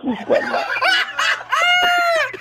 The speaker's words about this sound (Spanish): ¿O el gallo que tienes ahí por un lado?